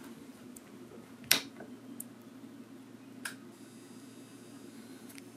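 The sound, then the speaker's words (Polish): A low, steady electrical buzz from a power station inverter hums throughout while the station charges through a plugged-in cable, with a faint high whine creeping in and a couple of sharp clicks. Quiet, and no one speaks. “słychać jakieś bzyczenie przetwornicy”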